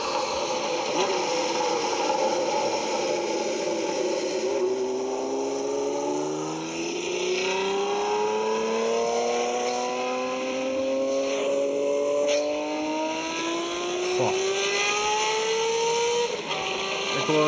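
An inline four-cylinder crossplane engine revs loudly, its harmonic drone climbing steadily in pitch over several seconds with no one speaking.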